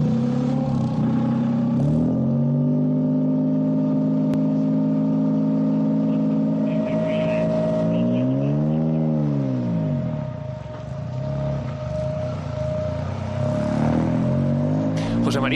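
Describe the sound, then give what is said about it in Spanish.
A hydrogen-powered car runs steadily with a loud, droning hum, then swells and dips in pitch midway as it revs up and settles back, with faint mechanical whirring throughout. “Hemos buscado dos coches que funcionan con hidrógeno para ver realmente ese sonido cómo es.”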